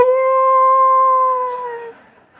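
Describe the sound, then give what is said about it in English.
A voice imitates a dog's howl: one long, steady, clear note that holds for nearly two seconds, then trails off and fades. It is fairly loud, and there is no talking. “Ah, they're some howling going on, some holy howling, you know, and, and it was just crazy.”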